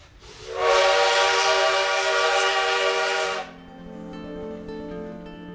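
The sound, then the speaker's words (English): A train's whistle blasts loud and long for about three seconds, then drops to a softer, steady droning tone over a low rolling rumble, on a long train ride from Mexico City to the United States in fall 1930. No one speaks. “In the fall of 1930, newlyweds Diego Rivera and Frida Kahlo set out on a long train ride, leaving their beloved Casa Azul in Mexico City to come to the United States.”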